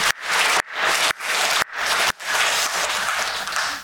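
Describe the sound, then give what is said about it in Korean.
An audience at a church service applauds together, a dense, steady wash of many hands clapping at once, briefly dipping a few times before continuing strongly to the end, with no voices heard over it. “네, 또 한 번 박수해요.”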